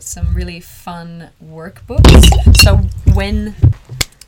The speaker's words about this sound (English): so what you hear was that I accidentally um, threw the water all over the computer.